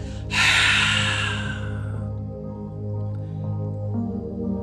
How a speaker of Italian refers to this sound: Dai, prendiamo l'aria e lasciamo l'aria adesso senza prendere la respirazione.